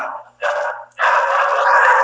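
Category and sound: animal, dog barking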